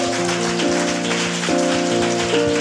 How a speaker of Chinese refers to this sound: 我非常感谢我们当中的这些大专生，真的，我们要给他们一个掌声，谢谢他们